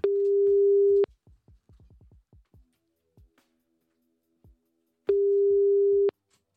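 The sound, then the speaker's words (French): A telephone ringing tone while calling a seller about a food truck trailer listed on Le Bon Coin: two steady, mid-pitched beeps about a second long, separated by a pause filled with a quick run of soft clicks and taps. No voices. “Bon eh bah écoutez, euh, on va euh, l'appeler maintenant Allez, c'est parti, on y va, on appelle.”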